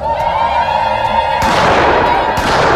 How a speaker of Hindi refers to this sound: हवा में गोलियां चली ड्रम बजे चीख चीख कर शोर मचाया गया